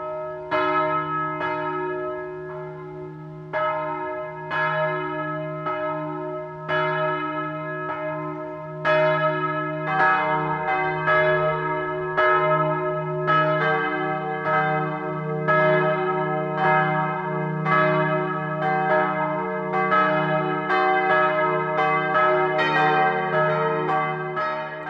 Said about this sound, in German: Es ist 12 Uhr. Das Mittagsläuten kommt heute aus Ramsau bei Berchtesgaden.